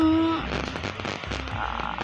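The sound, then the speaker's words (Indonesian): Rain falls steadily, a dense crackling patter of drops hitting a surface, with a brief humming tone at the very start before the downpour carries on alone. “jam aku ngerekam ini jam 13.24 kedengaran gak sih suara hujan di tempat aku lagi hujan”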